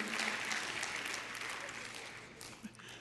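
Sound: audience clapping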